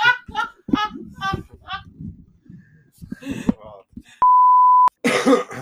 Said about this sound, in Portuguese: Tossidinha é básica. Desculpa. Básica.